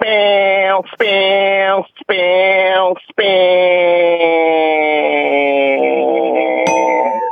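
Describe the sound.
A man's voice imitates a cicada's buzzing call, loud: three short, nasal, strained bursts, then one long sustained drone that wavers slightly in pitch before cutting off.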